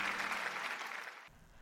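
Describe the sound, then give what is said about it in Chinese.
A burst of audience applause welcoming the opening of an art auction, dense and steady, with loud hissing clapping that carries on for over a second before cutting off abruptly. “今晚将拍卖出十三件艺术品，让我们用最热烈的掌声来迎接最美好的一晚吧！”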